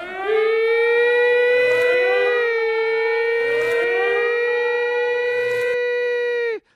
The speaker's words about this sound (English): and I hate to say it, but there goes the alarm. And that means we're gone.